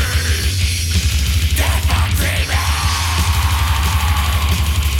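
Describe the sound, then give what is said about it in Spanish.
Harsh, high-pitched black metal shrieks processed with a harmonizer vocal effect, giving a doubled, harmonized edge, cut through a loud wall of distorted guitars and pounding low drums, continuous throughout. “Con esos alaridos, esos chillidos”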